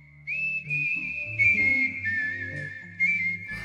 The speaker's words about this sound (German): Denn weil er als Kind zu viel Daumen gelutscht hat, stehen seine Zähne leicht nach vorne. Ich habe schon als Kind durch einen Vorbiss ein palatales Pfeifen entwickelt. Also dieser Vorbiss ermöglicht dann auch ein besseres palatales Pfeifen.